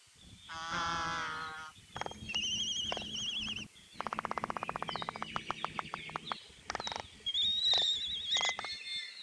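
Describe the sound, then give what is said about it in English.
Seabirds nesting in Hawaii in the fall give loud whining and groaning calls, wavering and nasal, broken by bursts of rapid wooden bill clapping, part of their courtship displays. Calls overlap and repeat throughout, with no talking. “This is also the best time to hear the various whining and groaning types of calls, as well as the bill clapping, which is part of their impressive courtship displays.”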